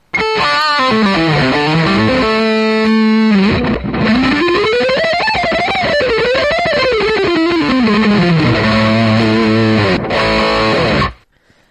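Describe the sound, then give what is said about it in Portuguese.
A distorted electric guitar solo plays loudly on its own, with wobbly bends sliding up and down in pitch, sustained held notes and slightly sloppy phrasing, ending abruptly after about eleven seconds. “Além de levar um tiro, tem que aguentar um solo lixo e amador desse, homem.”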